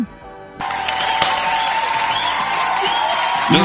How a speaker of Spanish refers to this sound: Aplausos, por favor.